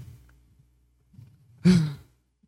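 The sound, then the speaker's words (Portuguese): A single loud, heavy exhale blows right into the microphone, a breathy, sigh-like gust lasting about a third of a second after a stretch of faint low murmuring. “Dá pra escutar a tua respiração, mano.”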